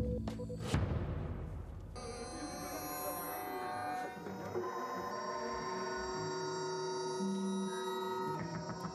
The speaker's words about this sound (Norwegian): Og dette er lyden av et parti sjakk. Teknisk museum lar publikum spille et 40 år gammelt verk av John Cage, og vi hører hvordan det fungerer senere i sendingen.